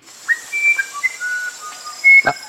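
A musician wren sings a string of clear, flute-like whistled notes that jump between pitches in an unhurried melody, fairly close and alone, with a brief soft knock near the end.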